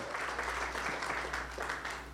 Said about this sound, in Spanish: Si usted lo cree, denle un aplauso al Señor hoy.